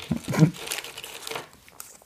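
Crinkly plastic wrapper of a fortune cookie being torn and crumpled open in a few quick, rustling bursts, followed by a short lull and a faint final crackle.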